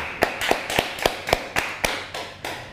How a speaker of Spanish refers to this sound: Shabbat, Shalom, amada familia, un fuerte aplauso.